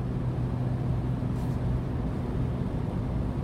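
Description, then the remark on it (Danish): A rebuilt car's engine drones loudly and steadily from inside the vehicle as it is pushed toward 200 on a road with no other traffic, a deep continuous rumble with road noise and no voices. “Så øh, jeg tror godt, jeg, tør, jeg, jeg tror godt, jeg tør at få den op på øh, i hvert fald de, øh, de 200 her, når der ikke er andre på vej.”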